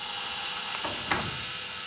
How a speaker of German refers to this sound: Zuerst passiert nichts. Dann rattert der Türöffner.